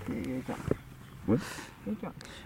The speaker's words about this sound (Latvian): šeit skan uh, vāršu koris, kura pavadījumā krokodils Dandijs dzīvo